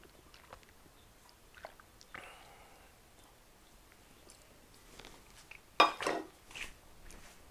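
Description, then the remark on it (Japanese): Someone quietly drinks tencha tea that had been made and left in the living room: soft sips and small scattered clinks of a cup and dishes, with one sharper, louder clink near the end and no talking. “はいというわけでリビングに置いてあった天茶作ってあった天茶を飲みましたそうあの天茶もね天茶美味しいんだけど”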